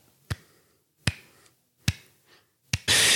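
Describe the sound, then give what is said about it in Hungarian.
Four sharp, crisp hand claps, reused from an earlier recording, come at a slow, even pace with short decays between them. An abrupt burst of loud hiss follows at the very end. No voices. “Ah, Vagy eh, lusta vagyok tapsolni, úgyhogy majd ezt az előzőt ide, ide teszem.”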